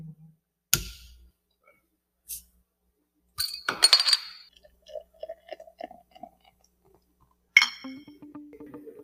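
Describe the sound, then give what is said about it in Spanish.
A bottle opener clinks against glass beer bottles, a handful of sharp taps with short bright ringing, spaced irregularly with quiet rattling in between and no talking. “Ah, aquí está el destapador.”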